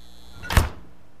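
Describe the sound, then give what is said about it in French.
A refrigerator door swings shut with one soft, muffled thud, a brief low thump with a light rattle, then quiet. No voices are heard. “Le frigo.”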